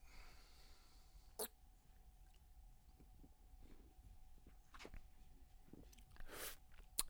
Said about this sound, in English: Um, let me get another sip here.